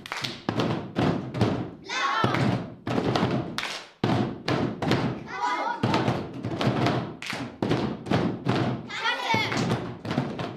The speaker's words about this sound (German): Die Buben und Mädchen können es aber noch lauter. Bitteschön. Trommel mit dem Eimer.